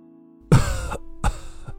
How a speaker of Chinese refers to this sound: 突然，病床上传来了一阵咳嗽声。